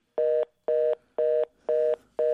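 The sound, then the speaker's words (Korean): A telephone disconnect tone after a call ends: steady, evenly spaced beeps, about two per second, five in a row, clear, with no voices. “그렇게 별일 없이 전화를 끊고 다시 친구들과 술을 마시고 있는데 그때였습니다.”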